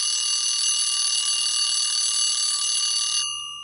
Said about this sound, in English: And the alarm bell, as always, brings to an end another show.